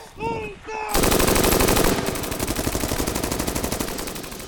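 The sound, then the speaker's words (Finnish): Sustained bursts of automatic gunfire erupt after a brief voice-like whistle, a dense rapid rattle of many weapons firing continuously as all magazines are fired empty, loud, gradually thinning into quick repeated shots. “Tässä vaiheessa kaikki lippaat ammutaan tyhjiksi.”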